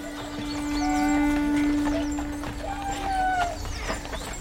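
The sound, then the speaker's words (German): A horse-drawn wagon carrying a group of tourists rumbles along footpaths and gravel paths at Campus Galli in the hot summer of 2018, with irregular hoof clops and wheel crunches over a steady creaking drone, as faint chirps flit in the background. “wieder rumpelt Uwe Links Pferdegespann über Trampelpfade und Kieswege”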